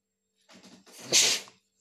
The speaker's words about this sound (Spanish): Y ahí acabo de estornudar en el codo, como corresponde. De paso les dejo el tip.